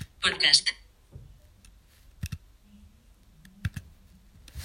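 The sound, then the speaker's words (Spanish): A quick flurry of keys clattering on an Orbit Writer keyboard near the start, then a few isolated, sharp key presses, including dot 8 pressed as enter to send a message, spaced out over the next few seconds, fairly crisp, with a faint voice murmuring in the background. “Y entonces yo ahora si lo quiero enviar directamente le doy al punto 8, que es el enter a todos los efectos.”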